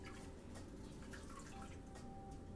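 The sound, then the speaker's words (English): Not very warm water drips from a faucet in a series of irregular plinks over a steady wash of running water, with no voices. “This water is not very warm.”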